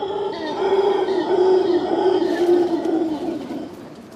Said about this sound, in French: Ce cri, c'est celui du singe hurleur à manteau. C'est pour communiquer avec ses congénères au loin qu'il le fait résonner ainsi dans sa gorge.